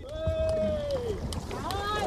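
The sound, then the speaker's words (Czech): A new wooden rowing boat, made from a roughly 300-year-old tree, creaks with drawn-out groaning tones as its crew pushes off from the pier on its first voyage, with knocks and water sloshing against a steady outdoor rumble. “Vyplouváme, odražte přijď od mola.”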